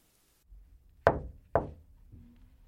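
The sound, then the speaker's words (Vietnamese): A man arriving early at work knocks twice, sharply and loudly, on his boss's door, the knocks spaced about half a second apart, with no response, followed by a faint low hum and quiet background noise. “Anh cố đến sớm hơn mọi ngày để gặp sếp vì ông lúc nào cũng đến sớm hơn khoảng một tiếng so với quy định – hồi hộp gõ cửa nhưng không thấy phản ứng gì.”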